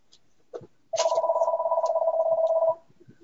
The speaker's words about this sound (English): That, oh, forgive me, it's going to do that four times. I don't, I don't know. Do we? Maybe someone knows how to mute this phone. I don't know how to do that.